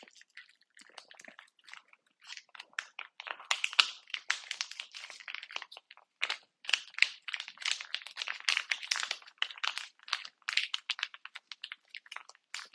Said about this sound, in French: Je recherche un endroit dans lequel déverser le contenu de ce contenant. Je trouve une gamelle avec des croquettes et une tête de Winnie l'ourson. Je vais badigeonner la gueule de Winnie l'ourson avec de la pâté pour chat. 1, 2, 3, je déverse.